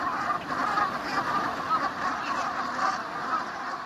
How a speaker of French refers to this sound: Alors c'est la course, entre les bernaches qui chipent les algues dès qu'elles le peuvent et les vagues qui grignotent toujours plus de terrain. Mécontentes, les bernaches murmurent, marmonnent, caquettent.